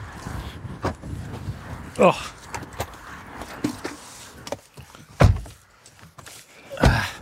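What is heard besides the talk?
getting into a car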